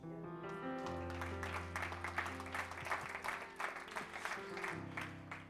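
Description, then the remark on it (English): An audience claps steadily for several seconds, a dense burst of many hands, with a low sustained musical tone underneath and faint murmuring. “You're clapping, but Jesus almost got clocked.”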